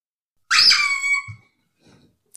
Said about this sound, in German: Das ist die Hupe.